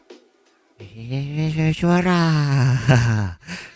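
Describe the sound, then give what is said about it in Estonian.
A voice imitates a freezer's night noises with a long, wavering, groaning hum, fairly loud, preceded by a faint breath and ending in a short exhale. “siukseid hääli hakkab tegema minu külmutuskapp ja hirmsasti kardan.”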